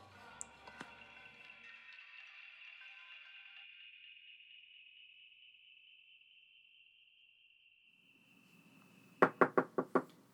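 Five quick, sharp, loud knocks on a door come after a long steady tone that slowly fades; no one speaks.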